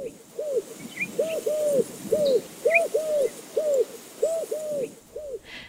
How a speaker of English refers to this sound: That's the call of the Eurasian collared dove, Originally from Asia, this dove has been expanding its territory around the world at an incredible rate.